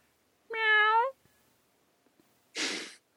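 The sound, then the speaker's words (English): A person gives one drawn-out, tonal meow imitating a cat as a charades clue for catfish, fairly loud. After a short quiet pause comes a brief breathy hiss or puff of air. “Meow. A catfish.”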